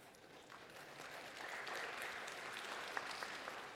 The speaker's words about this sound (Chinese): 不要鼓掌，一鼓掌我骄傲了，我说啊。